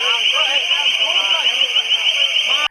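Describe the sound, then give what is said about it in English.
A sound cannon used to make a crowd disperse blares a loud, piercing, high alarm tone that holds steady for nearly three seconds before cutting off abruptly, with a crowd of voices audible underneath. “And probably my highlight from the couple days ago was they, they had the sound cannon just, boop, boop, boop, you know, real loud.”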